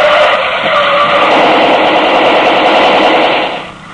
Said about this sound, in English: The getaway car slewed around and headed back the way it had come, though not before it was whacked end to end by machine gun fire.